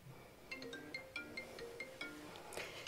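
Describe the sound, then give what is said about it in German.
A quick series of bright electronic chimes, a phone's message notification tone for an SMS or WhatsApp message from the boss after work, repeating in short bursts over a soft background hiss with no voices. “Sie bekommen eine Nachricht vom Chef, ein SMS, WhatsApp.”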